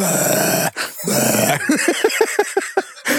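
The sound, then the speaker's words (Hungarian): A voice imitates a cow-like bellowing belch, like a village dairy cow, of air built up under pressure in the stomach after it is inflated for an examination: two rough, drawn-out groans followed by a rapid run of about eight short, low grunting pulses, loud and without speech. “És, és hát ez a levegő miközben túlnyomással fölgyülemlik a gyomrodban, kifele úgy jön, mint a, ha te lennél a falu, nem is tudom, fejős tehene, és éppen így elbődülsz magadba”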